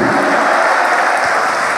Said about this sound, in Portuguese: Continua aplaudindo se você crê que Ele está aqui. Aplaude esta palavra se você crê nela.